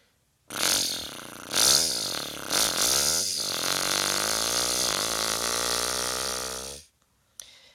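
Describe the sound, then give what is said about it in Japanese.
A voice imitates a motorcycle engine with a buzzy lip-and-throat rumble, revving up a few times before settling into a long steady drone for about six seconds, then cutting off. “えー、バイクのエンジンをいきます。”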